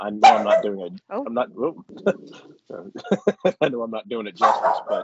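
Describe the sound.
A person imitates a dog's barking with a run of short, sharp yips and woofs, mixed in with their own talking and a brief laugh.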